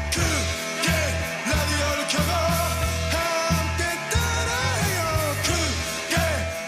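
A loud 1986 Korean heavy metal song from a band's debut album: dense distorted guitars over a pounding, chugging rhythm, with a high, strained shouting vocal, recorded while the singer had the flu, wailing on top, steady and full throughout.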